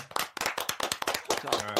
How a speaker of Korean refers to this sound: 아, 좋습니다. 어, 박수 한번 크게 한번 쳐야 됩니다. 네. 네 이게 도대체 몇 주 만에 우승입니다.